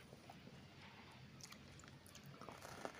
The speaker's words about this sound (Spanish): Déjenme darle un trago a mi café.